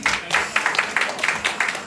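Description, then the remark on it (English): A small crowd at a producers' showcase breaks into brief, scattered applause for the bartender, many hands clapping in quick overlapping bursts at a moderate, steady level for a couple of seconds. “So make sure y'all clap it up”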